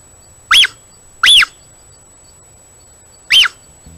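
A mother puma (Puma concolor) gives three short, high, bird-like chirps as a call, two close together and then one after a pause, each loud and clear against an otherwise quiet background.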